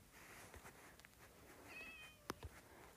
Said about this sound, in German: Da war eine Katze. Oh, süß.